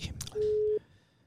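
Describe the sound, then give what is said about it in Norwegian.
A single steady electronic telephone ringing tone of an outgoing call, clear and fairly loud, lasting under half a second after some faint shuffling noise, with no voices present. “Skal vi prøve å ringe”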